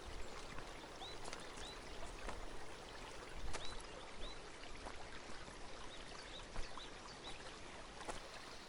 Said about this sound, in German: Ein leises Rauschen kündet von einem Quellbach, der durch den Garten zu plätschern scheint und eine beruhigende Symphonie bildet